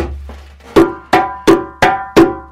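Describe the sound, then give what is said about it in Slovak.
A djembe drum is struck five times as a sound test, at a steady, slightly quickening pace, each loud hit ringing out with a resonant tone before the next. No voices are heard. “Buchneme, vypočujeme, či tu aj dačo nebude rezonovať. Môžem ťa chytiť k tomu bubnu.”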